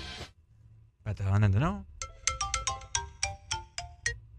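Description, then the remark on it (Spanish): A phone ringtone for a fake incoming call, set up in the phone's sound settings, plays a bright, repeating melodic pattern of short chiming notes in steady rhythm, preceded by a brief burst of voice-like sound, clear. “Y pones como que te están llamando.”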